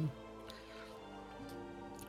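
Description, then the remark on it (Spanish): Someone takes a quiet sip of water, with a few soft, wet swallowing clicks over a faint, steady tonal hum. “y agüita, agüita,”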